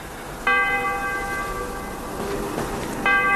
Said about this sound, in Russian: Меня как ударило этим колокольным звоном.